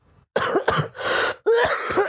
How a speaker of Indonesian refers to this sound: Mohon maaf itu atas pendengaran kalian yang, yang terganggu gitu karena kitanya uhuk-uhuk jadi sobat batuk tapi kadang suara orang serak tuh suka lebih bagus didengar gitu.